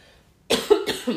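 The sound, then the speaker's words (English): A quick fit of coughing, three or four harsh bursts in rapid succession, fairly loud after a brief moment of near silence, with no speech. “coughing now”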